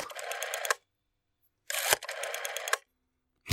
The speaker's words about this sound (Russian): Так, сначала нужно набрать телефонный номер. Так, три, пять... Так, какой у нее номер, блин, забыл.